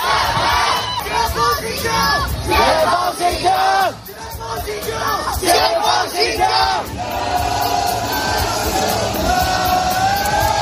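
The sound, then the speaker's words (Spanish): A large protest crowd in China chants slogans against the Communist Party and Xi Jinping in unison, many voices shouting together in rhythmic bursts that rise and fall, loud, with a sustained roar of voices toward the end. “En algunas incluso han escuchado cánticos contra el Partido Comunista”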